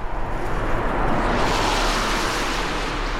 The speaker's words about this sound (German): Regelmäßig fahren Autos vor, auch Busse, mit Geflüchteten aus der Ukraine. Zu jeder Tages- und Nachtzeit werden sie hier aufgenommen.